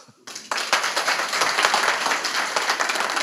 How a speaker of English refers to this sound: Um, a big applause.